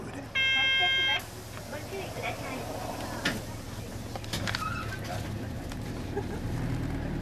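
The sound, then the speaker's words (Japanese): A loud, steady electronic door buzzer sounds for about a second, then the engine of the Acchan-go, a wrapped bus painted with Atsuhime and Saigo Takamori, rumbles low and continuous as it departs, with faint interior rattles. “発車した私は今あっちゃん号に乗っているんですがこのバスはですねあっちゃんこと篤姫とセゴドンこと西郷隆盛の絵が描いてあるラッピングバスなんですね”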